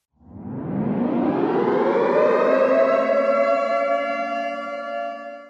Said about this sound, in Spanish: Podríamos oír la sirena de alerta de una bomba nuclear frente a nosotros.